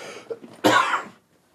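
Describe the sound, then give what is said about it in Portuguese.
A single harsh cough from a person turning as far as possible from the microphone while recording a video bursts out partway through, fairly loud but slightly muffled, fading out after about half a second into quiet. “Então eu vou tossir o mais longe possível.”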